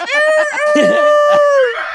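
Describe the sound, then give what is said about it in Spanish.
A person imitates a rooster's crow, holding one long, high, strained voiced note for about two seconds, loud and steady, with breathy rough bursts and other voices mixed in around it. “Háganle como, háganle como gallo.”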